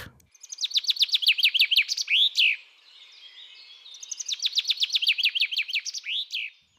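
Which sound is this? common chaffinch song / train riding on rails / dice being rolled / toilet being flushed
common chaffinch song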